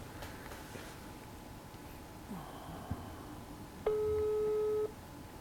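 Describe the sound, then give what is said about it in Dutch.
A phone ringback tone plays over a speakerphone, a steady electronic tone lasting about a second against a low background hum, with faint clicks before it and no one talking. “Ik zet hem op speaker, dan kunnen we hopelijk goed genoeg meeluisteren.”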